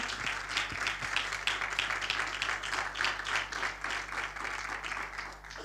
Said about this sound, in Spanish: Si quiere, dar un aplauso de alabanza al Señor.